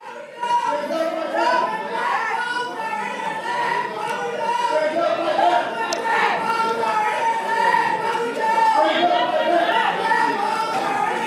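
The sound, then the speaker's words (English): A crowd of protesters screams and shouts continuously during a legislative session on a bill about independent special districts, many overlapping voices forming a dense, steady roar with raised, strained tones rising above it, and no single voice standing out clearly. “Whatever they're screaming, they're Members, fans of grooming children and they're big Disney fans”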